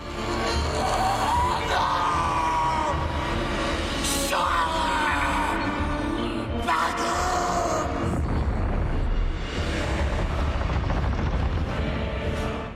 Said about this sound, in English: We see these shots from the land of Mordor the fortress known as Barad-dûr. Mm-hmm. And we hear someone being tortured within the fortress walls. Mm, uh, mm. We hear two words screamed into the darkness.